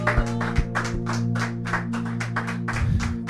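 audience applauding

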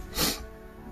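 dog snorting

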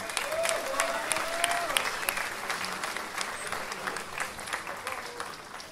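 applause

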